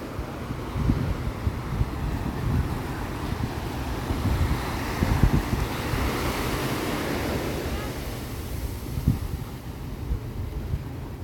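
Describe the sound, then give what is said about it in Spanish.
Steady roar of ocean waves washing onto a beach, loud, with gusty wind buffeting the microphone throughout and no voices. “Voy a dejarles un poquito el sonido abierto para que escuchen las olas del mar.”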